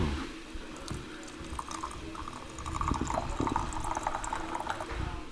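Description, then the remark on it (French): Hot water from a kettle off a nearby stove pours steadily into a teapot to preheat gongfu cha tea utensils, a continuous liquid gurgle with small splashes that grows slightly fuller as the vessel fills. “c'est de venir préchauffer tes ustensiles avec la bouilloire qui est sur le réchaud à côté de nous. On va venir verser l'eau à l'intérieur.”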